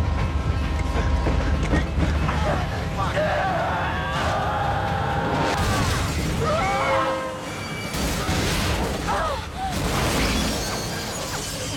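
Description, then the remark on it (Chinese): A speeding train roars past with a sustained low rumble and rattling, joined by screeching metallic squeals and bursts of crashing noise throughout, its blast of air whipping up pieces of a wrecked car. “刚准备庆气，而一旁的帽子哥破口大骂的时候，疾驰而过的火车刮起了一阵气浪，卷起汽车的碎片，将帽子哥的脑袋削成两半。”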